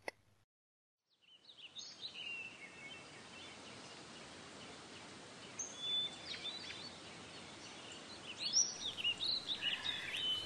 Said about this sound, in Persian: در باغ به جای شن ستاره ریخته بودند. هزار پرنده روی شاخه های درخت ها آواز میخوندند و هزار جوی زیر گلبوته ها میدویدند.